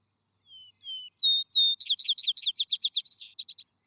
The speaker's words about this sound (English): Add the best parts of the lay of the latter to the sweet vibrating chant of the wood sparrow, and you have the evening hymn of the vesper bird, the poet of plain, unadorned pastures.